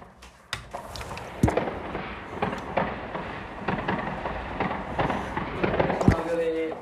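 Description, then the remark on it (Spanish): Fireworks crackle and pop outside the window in a rapid, irregular barrage, with a few louder booming bursts standing out above the continuous rumble and snapping. “joder los, los, los, fuegos. Que estamos en Amigas, escuchad. Espera, os voy a sacar por la ventana”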